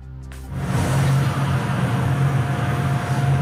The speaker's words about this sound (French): Voilà ce que cet homme vit au quotidien avec la VMC qui fait énormément de bruit. Écoutez.